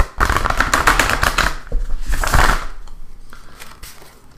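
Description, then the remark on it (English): A deck of cards is shuffled, a quick flurry of crisp riffling clicks, a brief pause, then a second shorter burst that trails off into quieter rustling. No one speaks. “All right, we're gonna give it a shuffle.”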